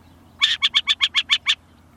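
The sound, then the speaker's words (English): A burrowing owl calls in a quick run of eight harsh, chattering notes, evenly spaced, over a faint low background hum with no voices. “Naturalist Hamilton Tyler noted that the Zuni people call the burrowing owl the priest of the prairie dogs because the owls live on peaceable terms with prairie dogs, rattlesnakes, and horned toads.”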